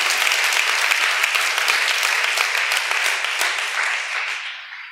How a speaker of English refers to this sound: And little did I know, years later, we would get a quarter of a million dollar in grants who, who, who would have thought that God, I think someone needs to clap at that.